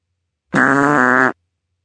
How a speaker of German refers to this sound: Igitt, immer diese Pupserei, schimpfte Schoko.